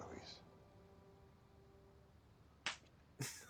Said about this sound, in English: I don't know what that slap was for.